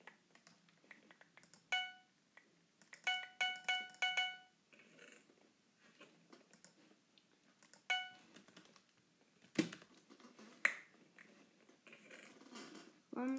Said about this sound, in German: Dieses grauenhafte Geräusch ist, wenn wir immer starten und dann das Gold aufsammeln. Ich habe meine Spielsounds laut, dass, dass ihr alles hören könnt.